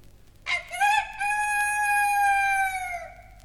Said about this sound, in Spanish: Así estaba pensando nuestro espantapájaros cuando vio a un gallo que cantando desafiante pasaba junto a él.